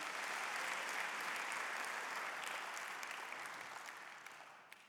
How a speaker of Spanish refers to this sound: me encanta lo que estás diciendo. Y aplaudí como tres veces.